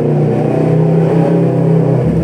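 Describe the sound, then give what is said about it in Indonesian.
A loud motorcycle engine revs by the roadside, its deep throaty drone holding steady before shifting slightly as it passes, with no talking over it. “ya kita lagi di pinggir jalan jadi ada suara motor lewat motor mahal kayaknya”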